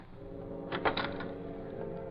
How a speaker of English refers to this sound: Lefty, who had entered a small side window, unlocked the door from the inside